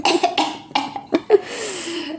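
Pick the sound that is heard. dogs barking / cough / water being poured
cough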